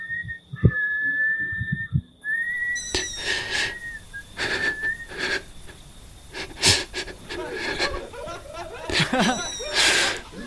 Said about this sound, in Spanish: Intentó voltear y huir, pero una quinta sombra que llevaba un sombrero se le impide y lo tumba. Se empezó a acercar mientras silbaba.